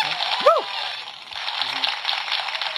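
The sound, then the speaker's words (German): A burst of dense, steady applause played as a sound effect hisses throughout at an even level, with a short rising-and-falling whoop near the start and a faint low voice briefly underneath. “Warte, Applaus kann ich machen.”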